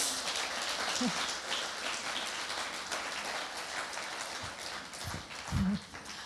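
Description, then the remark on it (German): A steady, dense wash of applause welcoming a guest, many hands clapping into an even crackling hiss that holds for about six seconds, with a few duller low thumps near the end. “Willkommen. Applaus”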